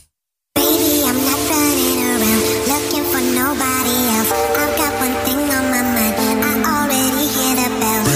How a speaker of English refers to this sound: And for those of you who have never heard The Geeky Gay before, this is how The Geeky Gay starts. This is the the Geeky Gay theme song. Uh, it goes like this.